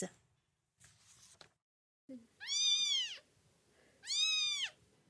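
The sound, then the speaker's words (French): Two drawn-out kitten meows, fairly loud, one after another with a short pause between, over a faint background murmur and a few brief rustling sounds beforehand. The kittens were abandoned this summer and are at the SPA animal shelter in Orgeval, Yvelines, France. “Abandonnés cet été, ces chatons ont trouvé un nouveau refuge temporaire.”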